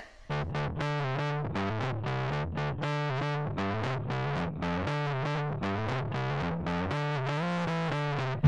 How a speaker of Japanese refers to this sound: 続いてはこのコーナー。山田とろすけ速報音楽、カモンアクション